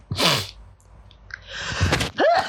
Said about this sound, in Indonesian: gue nungguin dia bersin dulu baru ngomong pas nggak jadi kasihan.